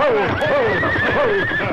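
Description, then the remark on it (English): A horse from a frenzied racing team whinnies loudly, its shrill, wavering neigh rising and falling over a steady background rumble with faint hoof clatter, as the Lone Ranger and Tonto grab the horses' bridles. “As Silver moved in beside the frenzied team, the Lone Ranger reached out to grab one bridle, while Tonto grabbed the bridle of the other horse.”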